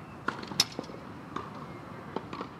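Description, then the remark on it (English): Tennis balls being hit back and forth in a game, a series of sharp, hollow pops at uneven intervals, heard not too far in the distance through an open apartment window in Dublin, Ireland, in the evening; faint against a quiet outdoor background with no voices. “The soothing, rhythmic sounds of tennis.”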